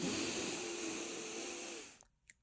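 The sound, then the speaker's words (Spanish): A slow, deep breath drawn in through the nose as part of a six-breath calming technique, loud, a steady airy rush lasting nearly two seconds before cutting off into quiet with a couple of faint clicks. “Durante cinco segundos inhalo.”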